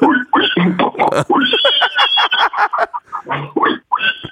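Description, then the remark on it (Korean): A person imitates a pig for fun with a rapid run of grunting, snorting oinks, loud, chopped into short bursts with a few squealing, nasal sounds mixed in. “마지막으로 그럼 짧게 돼지 소리 한번 하고 끝내겠습니다.”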